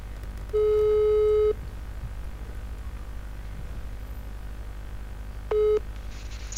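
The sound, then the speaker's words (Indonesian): A telephone ringback tone while placing a phone call: one steady, slightly buzzy beep lasting about a second, a long pause, then the start of a second beep, heard clearly over a quiet line hiss. “Kita langsung telepon saja.”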